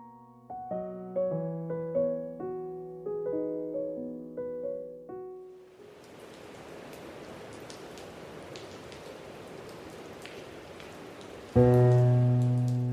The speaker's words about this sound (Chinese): 暴风雨是在夜晚突然发作的，窗帘被急雨入湿，手臂碰着它冰凉冰凉的。